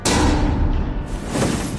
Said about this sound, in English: Abigail roared back at him as she barged at the door.